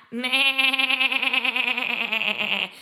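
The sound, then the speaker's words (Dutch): A person imitates a goat as a singing exercise with one long, sustained bleat, the voice wavering in a rapid, quivering vibrato for a couple of seconds. Fairly loud, with no other sounds. “Een hele makkelijke oefening, en je gaat lachen, hè, maar het werkt echt wel, is gewoon om een geit na te doen.”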